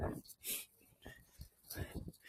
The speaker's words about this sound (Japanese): そして僕はあと2分後に電車が迫っているじゃないか。ちょっと走ろう。やばいやばい。すいません、なんか、息切れをお届けしてます。